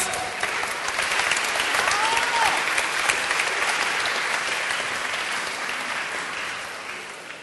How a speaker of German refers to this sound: Ihnen auch nochmal einen grossen Applaus